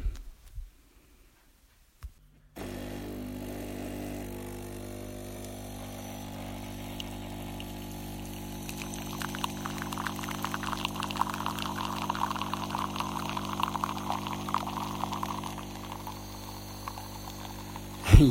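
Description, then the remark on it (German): A coffee machine whirs into action with a steady low hum, then gurgling, spluttering bursts of liquid build and sputter louder toward the end as it brews, with no voices present. “Ja, wenn ihr glaubt, dass dieses Geräusch einer schlichten Kaffeemaschine schon unangenehme Bilder bei euch weckt”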